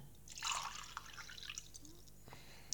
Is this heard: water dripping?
yes